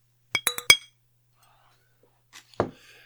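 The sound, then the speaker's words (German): A glass and a bottle clink together in a toast three or four times in quick succession, bright and ringing, followed after a pause by one duller knock and faint shuffling. “Dann lass uns doch mal anstoßen. Hast du ein Glas und ein, eine Flasche zum Anstoßen?”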